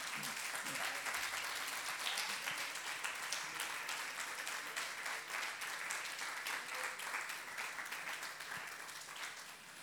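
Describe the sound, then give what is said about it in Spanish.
A crowd applauds their brothers and sisters steadily for about ten seconds, a dense, even wash of many hands clapping at once, with a few faint voices mixed underneath. “Le da un aplauso a su hermano y a su hermana.”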